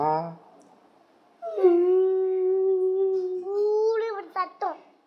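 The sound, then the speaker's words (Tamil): A person imitates ten jackals howling together with a long, sustained wavering tone that rises slightly at the end, followed by a few short yipping breaks, loud. “என்ன சத்தம் அது யாரோட சத்தம் நரியோட சத்தம் பத்து நரி சேர்ந்து உழையிடுது எப்படி உழையிடும் நரி உழையிடுதா”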